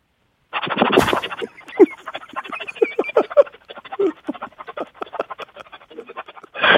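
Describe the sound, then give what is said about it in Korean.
A female high school senior imitates a pressure cooker cooking rice: a loud breathy hiss bursts out, then settles into a long series of rapid, sputtering puffs and clicks, ending with another strong hissing blast. “저 먼저 압력밥솥 밥 취사되는 소리 준비했습니다.”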